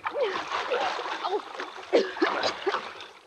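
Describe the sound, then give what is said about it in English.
Steady sloshing and splashing of water as someone wades across a water-filled ditch about 20 feet wide while carrying another person, with brief voice-like grunts or exclamations mixed in over the churning noise. “Now, come on, let's get across that ditch. In the water?”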